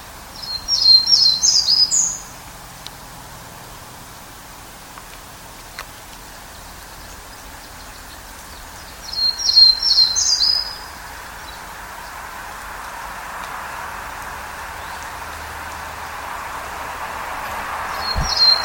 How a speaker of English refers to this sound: Um, before I leave the Townsend's Warbler, I'll go ahead and play each of those clips, uh, one after the other, just so you have a sense of uh, some of the variation in Townsend's Warbler song.